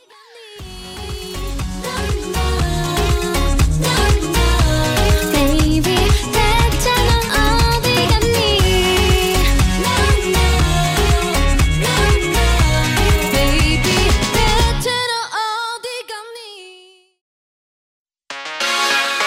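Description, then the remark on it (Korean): A full, loud K-pop song with dense beats, bass and layered melody plays for about fifteen seconds, then fades out, leaving a brief silence before music returns at the end. “네, 그럼 노래 한 곡 듣고 돌아올게요.”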